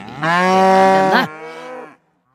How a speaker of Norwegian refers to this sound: Rautende kyr. I Gausdal. På hytta. Gausdalsku? Gausdalsku, ja.